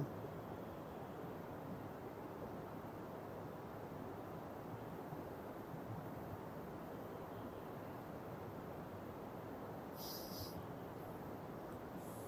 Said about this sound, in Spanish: Escuchamos el pájaro que está cantando, el río que suena.